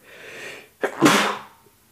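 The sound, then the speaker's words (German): A single loud sneeze with a sharp intake of breath just before it, followed by a brief burst of air and then quiet. “Gesundheit. Und danke.”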